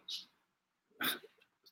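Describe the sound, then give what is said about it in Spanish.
A dog gives a short, sharp bark, followed by a couple of softer yips. The sound is faint, with no talking around it. “Pero bueno, eh, hasta el perro se enojó de lo que estamos platicando de los Falcons”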